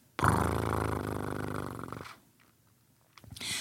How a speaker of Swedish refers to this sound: Och så är han den enda katt jag känner som går omkring och spinner av ingen synbar anledning alls. Bara sådär.